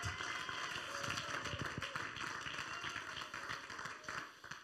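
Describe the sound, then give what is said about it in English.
An audience claps their hands together, a dense, steady patter of many overlapping claps that stays loud for several seconds and eases off slightly toward the end. No one speaks. “Oh, somebody clap your hands unto him if you believe that.”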